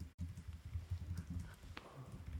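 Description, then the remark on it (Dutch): Soft, rapid tapping of keys on a keyboard as someone types out notes so as not to forget them, a steady irregular patter of muted clicks, with no one speaking. “Ik probeer dat hier uit te typen zodat ik het niet vergeet.”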